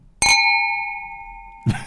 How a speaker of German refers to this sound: Das sind deutlich kleinere Gläser. Ihr hört es schon am Klingen.